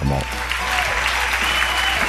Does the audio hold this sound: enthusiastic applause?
yes